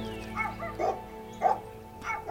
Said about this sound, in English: Is that another one down the street? Just like Earth dogs. One pipes up and they all get going.